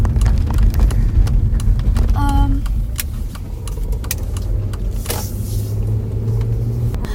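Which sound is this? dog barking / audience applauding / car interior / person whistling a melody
car interior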